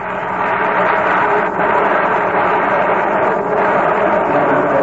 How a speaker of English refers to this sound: He's got him at first base. What a whale of the play by Rennie Stennett. Listen to the crowd.